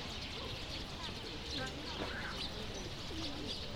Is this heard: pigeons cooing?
yes